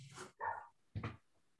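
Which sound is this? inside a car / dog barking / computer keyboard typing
dog barking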